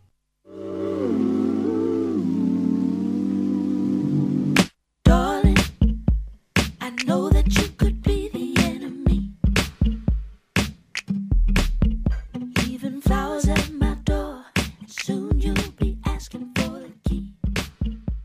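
A song plays at full volume, opening with a few seconds of sustained, gliding tones before a punchy, steady beat kicks in with layered melodic parts over it.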